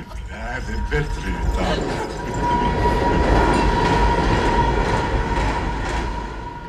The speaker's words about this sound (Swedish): eller på något sätt blir man ständigt påmind om att tiden finns någon annanstans, dessa tåg som ständigt åker förbi och aldrig mm. stannar i Viskan.